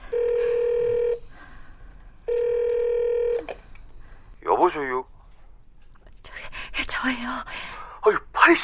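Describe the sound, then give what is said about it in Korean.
Two sustained electronic telephone keypad tones as someone dials a phone call, about a second each with a short pause between, followed by hushed, whispery voices talking. “형사님이랑 기자님도 낮잠 잔다고 들어갔으니까 지금 얼른 전화해볼까?”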